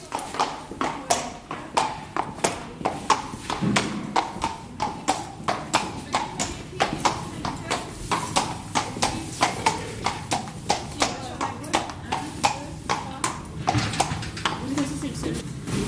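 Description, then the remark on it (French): Steady, regular clip-clop of a mare's hooves on a hard surface as she is led out to the grooming stalls, walking at an even pace for the whole stretch with faint background noise. “Alors on va juste la sortir et on va aller là-bas aux places de pansage.”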